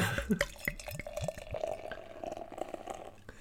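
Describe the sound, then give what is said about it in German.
Beer glugs and splashes as it's poured into a glass, with quick bubbling pops and rising gurgles early on, then a steadier fizzing stream. No one speaks. “Also ich mach mal auf.”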